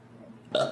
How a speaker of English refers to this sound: Bless you.